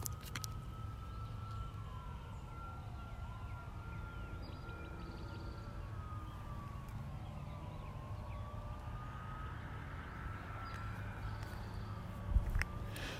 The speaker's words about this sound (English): I can still hear the fire, fire sirens there, so. You hear that? I'll stop for a second.